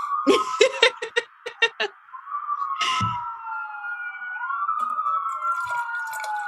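A police siren wails steadily outside a window, its pitch sweeping up and down, while bursts of laughter break out at the start.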